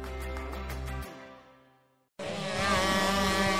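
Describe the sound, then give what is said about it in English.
A small racing kart engine at Sugar River Raceway revs with a rising, buzzy whine that trails off, then after a short silence a louder, harsher rev roars back in and holds steady. “drive a real 50 mile an hour racing machine”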